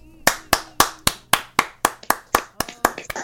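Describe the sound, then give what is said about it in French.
A person claps their hands about a dozen times in a steady, fairly quick rhythm, each clap a sharp, bright smack that rises cleanly above near-silence. “Et en, moi, J'applaudis, mais je suis pas tout à fait d'accord.”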